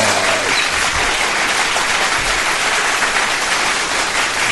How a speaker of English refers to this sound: Let's give the nerd a big round of applause.